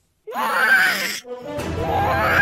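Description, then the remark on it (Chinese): A monstrous Tyrannosaurus roar sound effect, roaring at two burly men: two long, loud, gritty bellows, the first rising then breaking off, the second starting harsher with a deep rumbling growl underneath and sustaining to the end. “霸王龙冲着两个彪形大汉发出了怒吼。”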